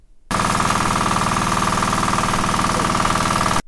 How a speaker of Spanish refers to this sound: Ese es el sonido de una motobomba eh, a gasolina. ¿Por qué? Porque es que las, truchas necesitan aire. Pues uno tiene las, los, tanques, pero esos tienen que ser aireados para poder tener mayor producción de, truchas.